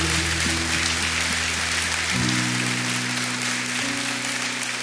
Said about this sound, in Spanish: Gloria a Dios. Dame un aplauso fuertemente.